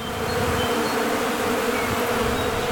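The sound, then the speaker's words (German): A dense, steady drone of many honeybees buzzing together, loud, with a continuous hum filling the whole moment and no voices. “An dieser Stelle werden nämlich bald zwei Bienenkästen stehen und dann gibt es hier also auch frischen Honig aus der eigenen Produktion.”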